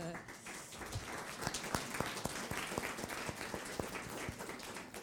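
An audience at the Institut applauds three speakers at the end of a conference, steadily: a dense wash of clapping with sharper individual claps standing out in an irregular rhythm, moderately loud and sustained throughout.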